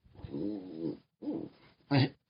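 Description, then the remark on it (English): A dog named Rebel, in the room, grumbles and groans in three throaty bursts, complaining at not getting attention: a long moaning complaint, a shorter one, then a brief louder whine-like grumble, with no one talking. “if you hear that, that's uh, the other dog that's in the room.”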